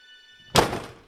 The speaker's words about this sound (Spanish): Entonces decidí esconderlos en casa pero rápidamente los soldados golpearon mi puerta.